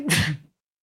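sneeze

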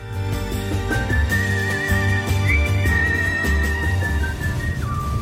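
electric car driving

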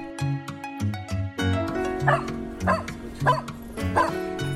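dog barking and yipping

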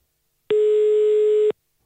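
telephone ringing tone

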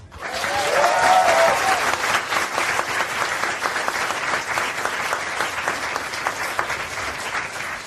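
studio audience applause

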